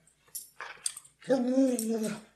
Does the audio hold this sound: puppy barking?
yes